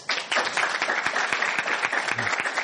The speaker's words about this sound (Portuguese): Palmas para vocês.